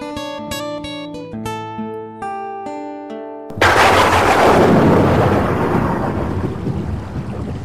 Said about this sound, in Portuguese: Putz, não acredito que começou a chover, cara. Logo agora que eu vou ter que ir pra casa. Não acredito nisso, vou ter que ir na chuva.